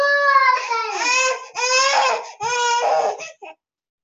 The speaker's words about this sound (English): hey, stop screaming.